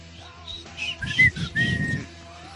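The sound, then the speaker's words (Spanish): Someone whistles the jingle-like tune of Carisaurio, the mascot of the Saturday-morning Caritele TV block: a quick run of rising and falling notes lasting a couple of seconds, with low rumbling noise underneath. “sábados con el, Con el Carisaurio que chiflaba.”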